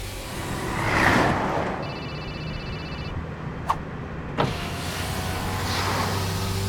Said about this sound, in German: Mein Chef rief mich immer wieder an, bis der Mann mein immer noch klingelndes Telefon aus dem Fenster warf.